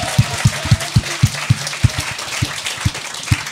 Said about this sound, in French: On va applaudir elle. Ça devrait.